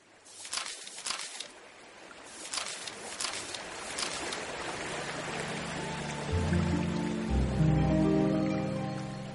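The steady rushing current of the Aburrá River rises behind a small canoe, with a few sharp splashy surges early on; later a low humming drone rises beneath the current. No one speaks.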